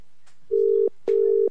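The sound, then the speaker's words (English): A phone ringback tone sounds clearly as a live call is placed from the Hot 92 radio studio: two steady, even electronic tone bursts separated by a short gap, with no one talking over them. “It's ringing.”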